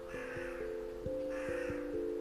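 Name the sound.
crow cawing outside window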